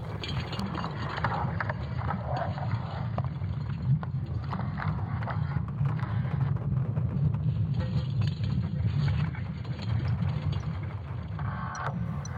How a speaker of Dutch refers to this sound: Deze wetenschappers hebben voor het eerst het magnetische veld rondom de aarde in geluid weten om te zetten. En dat klinkt zo.